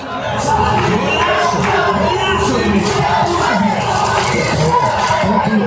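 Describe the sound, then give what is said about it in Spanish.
A football stadium crowd shouts encouragement during a match involving Mexico, in a dense, continuous roar, many voices blending into loud, rising and falling chants and yells that never let up. “Aquí es donde agradezco un poco haberme movido del lugar, porque los gritos de ánimo no cejan.”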